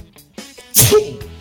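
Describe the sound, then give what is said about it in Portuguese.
A single loud sneeze caused by an allergy bursts out after a brief quiet intake of breath, sharp and noisy, then trails off quickly into silence. “E calma, não é corona, é alergia.”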